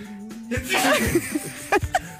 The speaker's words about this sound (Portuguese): Foi uma boa coleção de espirros.